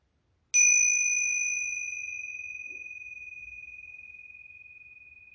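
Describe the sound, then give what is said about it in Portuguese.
A single bell is struck once, its clear high tone ringing on and slowly fading over several seconds, with no talking. “Diga o que você quer e repita novamente enquanto eu toco o sino, ok?”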